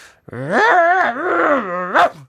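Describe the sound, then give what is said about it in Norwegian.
A person imitates the growl of an annoyed mother dog when seven puppies try to nurse at once: a drawn-out, wavering snarl lasting about two seconds that rises and falls in pitch, ending with a short sharp burst, fairly loud. “da kommer det sju valper som skal suge pupp samtidig. Mm -hmm. Og da blir hun sånn”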